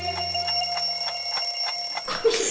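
An alarm clock rings in a fast, even pulsing rhythm with bright, high metallic tones for about two seconds, then cuts off as a brief, noisier sound takes over.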